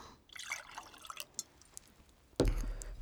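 Someone drinking water, with a string of small wet sips and liquid sounds, then a sudden louder knock near the end, like a glass being set down.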